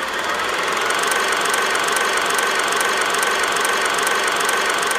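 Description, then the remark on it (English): A kinetoscope film projector clatters steadily and loudly on its own, a dense mechanical whir with a quick, regular ticking rhythm that holds constant throughout, with no one speaking. “let's pull out the kinetoscope and take a look at the Innocents”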